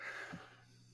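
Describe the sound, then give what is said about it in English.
A single quick, breathy sneeze, fairly soft, with a short snorting burst at the end and a low steady hum underneath. No one speaks. “Bless you.”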